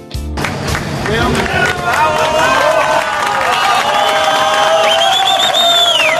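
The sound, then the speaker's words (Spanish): A large crowd applauds and cheers loudly and continuously, with excited shouting voices and piercing whistles rising over the steady clapping, celebrating Florencio Ábalos, the first of the miners trapped 69 days in a mine in Chile, being brought out on 13 October 2010. “Son los aplausos de alegría y de ilusión por la salida de Florencio Ábalos.”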